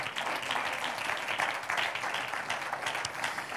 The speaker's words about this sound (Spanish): Vamos a darle un aplauso al Señor.